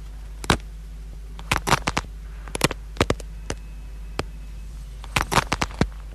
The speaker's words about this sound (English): so this will be the bones breaking. Penne pasta, penne pasta in the middle of the chamois, and then sort of group wrap the chamois around it, and then um, this will be the bones of the mother dragon snapping as he pulls the egg out of her.